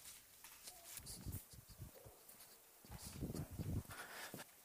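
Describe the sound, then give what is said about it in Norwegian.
Firm, steady footsteps click along a hard floor in two short runs, each step crisp, with a brief pause between the bursts. “Martin gikk med faste skritt mot biblioteket.”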